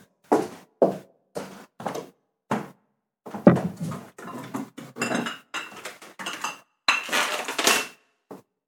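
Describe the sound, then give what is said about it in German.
Glass beer bottles clink and rattle as they are pulled from a fridge, a run of short, sharp knocks and chinks followed by a louder cluster of jostling glass and a soft thud, with no talking. “Ich hole ein Bier aus dem Kühlschrank.”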